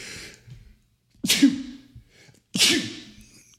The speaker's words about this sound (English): I'm going to sneeze.